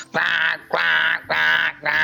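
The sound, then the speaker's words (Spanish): A voice imitates a morning alarm that sounds like a duck: four loud, nasal, buzzy quacks repeated in a steady rhythm with short gaps between them. “como un uh, pato así.”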